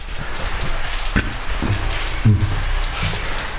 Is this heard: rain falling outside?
yes